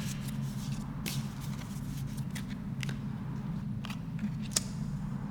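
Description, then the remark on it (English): Tarot cards being shuffled and drawn: soft papery riffles and a scattering of crisp, irregular snaps over a steady low background hum, with no one speaking. “shuffle and pick.”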